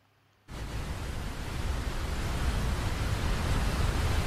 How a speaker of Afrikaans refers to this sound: Ja, eintlik is jy reg. Baie water, baie water. Okay, so dit die see het baie water, so hy is reg